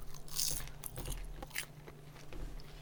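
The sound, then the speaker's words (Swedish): Crisp crunching of someone eating chicken nuggets right into the mic, with irregular bites and bursts of crackly texture over a low steady hum, and no talking. “Du Vänta, kan, kan du äta in i mikrofonen nu så får vi gissa vad det är du äter?”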